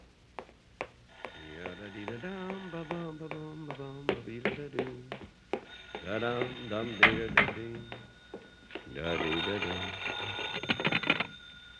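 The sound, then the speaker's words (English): A telephone bell in a house rings in long, steady trills, pausing briefly between rings, while people talk over it and a few sharp taps sound. “Oh, that's the phone, boss. Want me to go in the house and answer it?”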